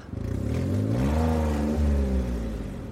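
A car engine revs up loudly, its droning pitch climbing and then holding steady as the vehicle accelerates, with no voices over it.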